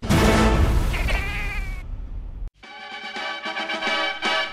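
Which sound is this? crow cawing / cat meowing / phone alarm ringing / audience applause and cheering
cat meowing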